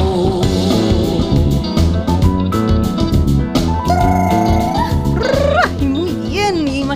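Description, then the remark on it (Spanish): Loud, steady Afro-Andean funk music plays throughout, driven by busy percussion and a thick groove, with bright melodic lines that slide and bend in pitch near the end. “Ellos son … y lo que estás escuchando es ….”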